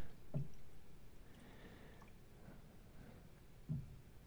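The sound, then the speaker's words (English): A stout beer being poured, heard faintly as a soft, steady liquid rush with a couple of brief splashy squishes near the start and end, and no talking. “This nice pour. Definitely a stout.”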